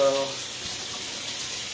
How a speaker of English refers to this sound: Gonna uh, turn it up for a warm water rinse off.